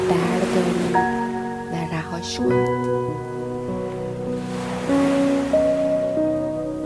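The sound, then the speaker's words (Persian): Soft ocean waves wash ashore in slow, rolling swells, blended beneath sustained, gentle musical tones that hold steadily throughout. “اون سنگینی رو بدین به موجای دریا”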